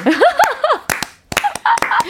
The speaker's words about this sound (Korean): 그 리듬에 맞춰서, 음에 맞춰서. 네. 박수.